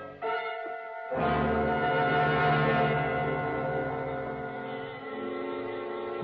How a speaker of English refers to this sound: First, I heard it the humming of swarming bees. Then I saw the overturned beehive.